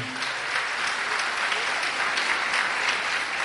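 A steady round of applause from a crowd for a pastor being introduced, dense crackling claps sustained at an even level for several seconds with no voices standing out.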